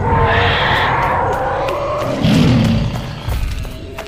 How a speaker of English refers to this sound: I turned and ran, but the monster's great legs carried it nearer and nearer to me, and its roar became louder and louder.